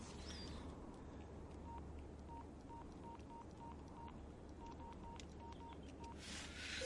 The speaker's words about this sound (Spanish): Coge el móvil y llama.